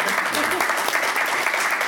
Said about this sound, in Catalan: Ah, us volia agrair a tots que heu assistit a la presentació, principalment als autors, que per algú han vingut i us demano un aplaudiment per ells.